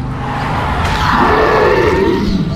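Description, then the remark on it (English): A monster roars behind a jeep: a loud, sustained monstrous roar lasting a few seconds, deep and growling with a rising then falling tone, intense with rumbling low end throughout. “The monster is behind the car!”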